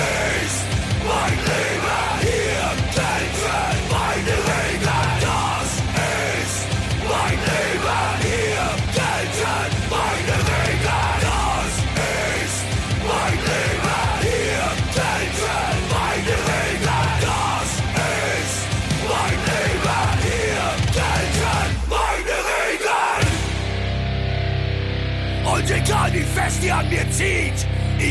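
Loud, dense metal song with harsh shouted vocals over driving drums and distorted guitars, playing continuously before shifting near the end into a sustained, ringing chord section.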